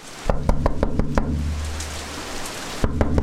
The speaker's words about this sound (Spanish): Al escuchar los fuertes golpes en la puerta